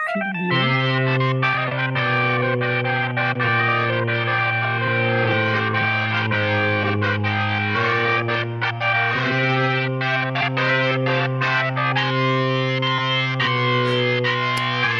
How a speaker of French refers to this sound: Oh, je vais quand même vous faire l'orgue. Hein, dès, que ça sera chargé, parce que là, vous voyez comme je meuble un peu Vous voyez hein Vintage Organ Vintage Organ, ouais, c'est ça. Tiens, écoute ça.